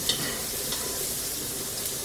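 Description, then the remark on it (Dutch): A steady, crackling sizzle of food frying and bubbling in a pan, with dense hissing highs and soft popping throughout, no one speaking. “Ja, mooi pruttelen, hè?”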